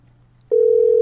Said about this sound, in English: Maybe he butt dialed us. Maybe. Cause now he ain't picking up the phone. One more ring.